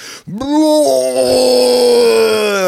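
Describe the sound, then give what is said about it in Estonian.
A man's voice imitates the pained scream he gave when something hit his head as an airplane was taking off, with a client and a photographer there: a short rising cry that swells into one long, loud, strained wail held steady for over two seconds, with no talking. “uks lahti ja siis öögin, karjun karjun, potti see asi lööb mulle pähe, eks ole panin kellegi vastu ja, ja see oli selline väga huvitav hetk, et noh, lennuk just tõuseb, eks ole, klient, fotograaf seal ja siis mina röögin.”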